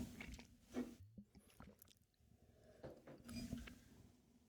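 Quiet wet mouth sounds of someone sipping and swallowing water, with soft slurps and gulps spread over a few seconds and no talking.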